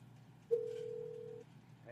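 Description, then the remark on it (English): An outgoing phone call's ringing tone: a single steady, moderately loud electronic hum lasting about a second over a low background murmur, followed by a voice beginning to speak; a call being placed to Sean King. “It's calling him now.”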